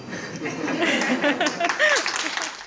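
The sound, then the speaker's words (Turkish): Hospital staff in Turkey clap steadily in a dense, continuous patter, with scattered voices and brief cheers mixed in, staying fairly loud throughout, as a doctor who recovered from coronavirus is discharged from the hospital where he worked. “Görev yaptığı hastaneden alkışlar da taburcu oldu.”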